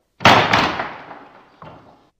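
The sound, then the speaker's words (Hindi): A door slams hard, a sharp bang that rattles and fades, then a softer second thud a moment later as it settles. No one speaks. “जाते जाते दरवाजा बंद कर दीजिएगा”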